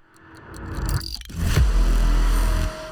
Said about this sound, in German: Erstmal muss ich natürlich auch nochmal ganz kurz unseren Challenge-Sound hier einblenden, weil wenn dann muss das hier auch alles original sein.